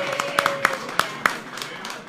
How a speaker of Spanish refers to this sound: Así que un abrazote, le damos a, un aplauso. Para ¡Bravo! ¡Aplausos, muchachos!